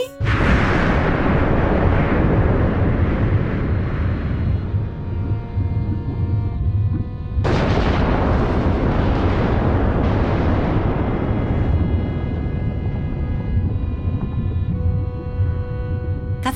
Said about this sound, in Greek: καθε τρια λεπτά γινόταν έκρηξη. Έβλεπε δηλαδή ότι έβγαινε από μέσα η λάβα. Ε, έπεφτε κάτω και άκουγες και το βουητό.